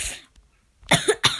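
A person coughs, a short breathy burst at the start followed by two harsher, louder coughs in quick succession after a brief pause, with no speech.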